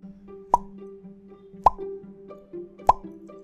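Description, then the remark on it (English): Three distinct, wet mouth pops spaced about a second apart, each a short bloppy plop, clear over a faint steady background hum with no talking. “If the story is true, my mouth would make three bloppy sounds.”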